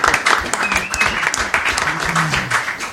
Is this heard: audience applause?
yes